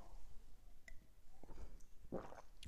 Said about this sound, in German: Äh, vorher gönne ich mir noch einen Schluck Wasser.